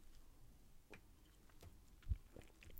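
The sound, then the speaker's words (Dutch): Someone takes a quiet sip of water, with soft wet mouth clicks and a low gulp as they swallow. No one speaks. “Even een slokje water.”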